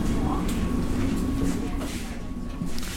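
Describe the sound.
A metro train rolls along with a steady, close low rumble and rattling hum that fills the whole stretch, with faint indistinct voices underneath.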